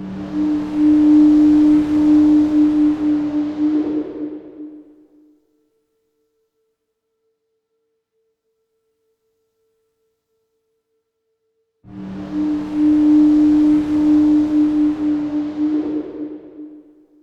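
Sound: foghorn blasting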